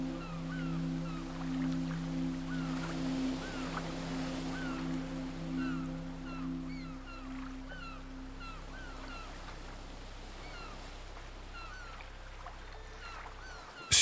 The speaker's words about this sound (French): Des mouettes viennent se poser sur les palmiers. Vous entendez leur chant joyeux.